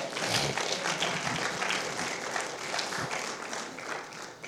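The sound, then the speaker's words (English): A crowd applauds steadily, many hands clapping in a dense, continuous patter that stays fairly loud and even for several seconds with no voices standing out. “And if you don't clap, every angel of God will outclap you.”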